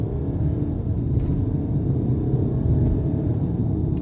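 The 2-litre turbo diesel engine of a Mercedes E220d, 143 kW with a 9-speed automatic gearbox, drones steadily while driving, a continuous low rumble with road noise that holds an even loudness throughout, no voices present.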